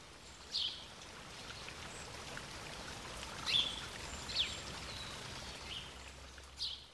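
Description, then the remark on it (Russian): Steady flowing river water rushes on continuously at a moderate level, with a few brief, bright bird chirps scattered over it. No one speaks. “К тому же здесь протекали четыре реки. Это были кристально чистые воды, в которых водились разные пестрые рыбки.”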